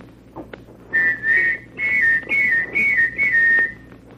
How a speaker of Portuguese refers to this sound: Ele utilizava uma gaitinha em suas transmissões.